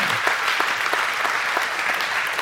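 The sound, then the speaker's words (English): A crowd claps steadily, a dense wash of many hands with occasional sharper individual claps, sustained at an even volume throughout with no voices over it, applauding students who will be graduating from high school. “Let's give them a round of applause for their.”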